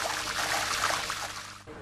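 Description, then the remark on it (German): Wash water drains steadily from a vat of soybeans after the beans are washed with compressed air, a continuous rushing trickle and gurgle, fairly even in level throughout with a slight dip near the end. “Dann wird die Druckluft abgestellt und das Waschwasser wird abgelassen.”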